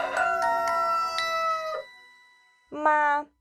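A fighting rooster crows loudly from a farm roof in a long, strained call, followed after a brief pause by a second, shorter crow.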